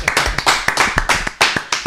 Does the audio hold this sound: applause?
yes